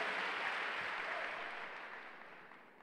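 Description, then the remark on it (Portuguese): An audience applauds the Lord, a dense wash of many hands clapping at once that starts full and slowly thins out and quiets over a few seconds, with no voices on top. “Aplauda ao Senhor e pode sentar.”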